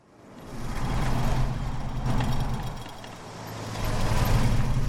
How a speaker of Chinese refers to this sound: 在高速通行区间。两辆汽车好像在展开追击战一样呼啸而过，岗亭仿佛要爆炸一样晃动了起来。